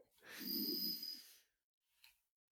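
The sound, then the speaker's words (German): A single long, deep breath drawn in through the belly, a breathy rush lasting over a second, followed by a brief soft breath sound after a short pause. “Und wir atmen einfach einmal ganz tief in den Bauch ein.”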